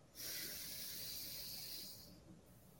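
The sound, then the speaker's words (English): A long, steady deep breath drawn in through the nose during a guided breathing exercise, a soft airy hiss lasting about two seconds, then fading into quiet. “Take a big inhale through your nose.”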